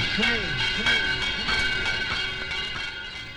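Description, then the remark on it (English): A train rolls steadily along the rails, a continuous loud rumble with a sustained metallic ringing whine layered over it, holding for a few seconds without a break. “Train”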